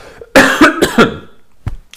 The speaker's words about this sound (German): Meine Huster haben nichts damit zu tun, dass sie gut oder schlecht waren. Irgendwie ist mir jetzt Staub in den Hals gekommen.